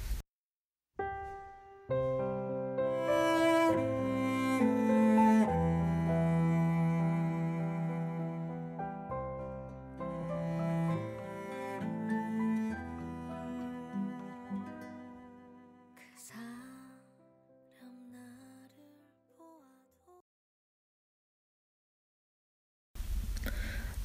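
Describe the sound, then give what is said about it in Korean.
A slow Korean pop ballad, a remake, with classical string instruments clearly heard, warm sustained notes swelling and easing before fading out near the end, followed by a short silence and a brief new sound. “어, 클래식 스트링 악기의 연주가 잘 들리죠.”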